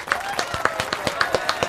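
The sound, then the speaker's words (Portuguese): A small group applauds to welcome guest Everaldo Marques, producing a steady stream of sharp, crisp claps at a quick, slightly uneven pace, with no voices over them. “Palmas.”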